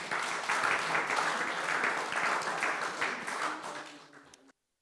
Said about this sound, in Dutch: Dus allemaal applaus voor jezelf en voor de vrijwilligers.